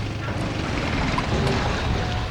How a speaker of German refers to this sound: Da kommt noch ein Motorboot.